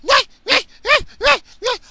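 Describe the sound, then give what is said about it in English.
A dog yelps five times in a quick, steady rhythm, each high-pitched yip short and sharp, loud with brief gaps between, and no talking. “Between this fucking dumb dog that doesn't know how to fucking bark. It's just, it's a yelp.”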